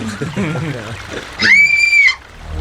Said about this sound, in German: Was war denn das? Das schreit ein Kind.